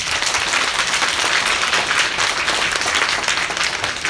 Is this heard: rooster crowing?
no